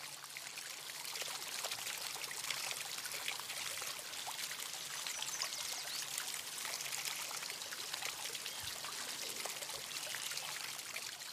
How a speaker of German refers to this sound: Vielleicht kommst du an einem kleinen Flusslauf vorbei. Dann hör mal, wie sich das Plätschern anhört.